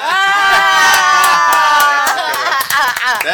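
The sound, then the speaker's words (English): A crowd bursts into loud cheering and whooping, with sharp handclaps cutting through the sustained roar of voices for a few seconds. “You got yes. the most claps throughout this entire podcast.”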